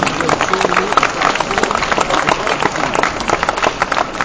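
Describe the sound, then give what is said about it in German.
An audience at an award ceremony applauds the announcement of the Sondermann jury prize for newcomers 2006, a dense, even wash of many hands clapping that holds at a fairly loud level for several seconds without fading. “Ein kräftigen Applaus.”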